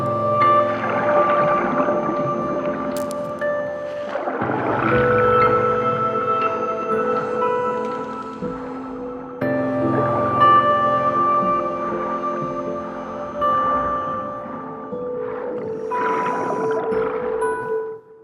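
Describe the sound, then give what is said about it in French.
Slow, melancholic ambient music with long sustained tones and soft swelling washes, evoking a dreamy underwater atmosphere like a video game soundtrack. It plays steadily throughout, with no voices. “sa musique est vraiment chargée émotionnellement j'avoue c'est c'est un peu planant”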